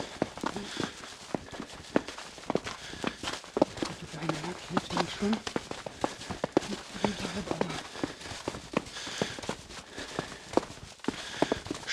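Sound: snow crunching under footsteps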